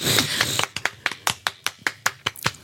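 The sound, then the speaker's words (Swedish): Hands clap in applause for a New Year's resolution, crisp: a brief flurry of overlapping claps, then about ten evenly spaced single claps in a steady rhythm, with no talking. “Hallå, applåd.”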